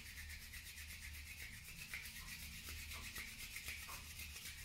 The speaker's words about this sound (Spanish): Pues vas a activar la energía, lo que quiere decir que vas a frotar tus manos. Si no me ves en la pantalla, simplemente frotas tus manos hasta que haya como un calor bastante fuerte.